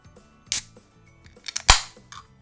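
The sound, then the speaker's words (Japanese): A 0.0% non-alcoholic beer container, classed as a carbonated drink, being opened: a short click, then a cluster of small snaps leading to a sharp, loud crack with a quick fizzing hiss, and a faint final click. No one speaks. “じゃあちょっと開けていきます。”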